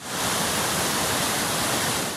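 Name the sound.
rushing flood water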